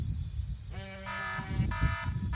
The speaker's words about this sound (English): Rick's phone startled him awake again, but this morning it was from the alarm he had set the previous night.